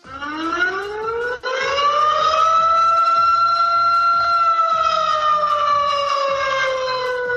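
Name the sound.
siren sound effect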